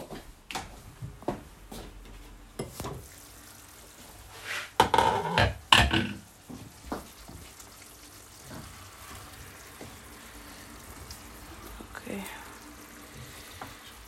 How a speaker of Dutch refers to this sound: Oeh, ik was aan het koken. Even wachten.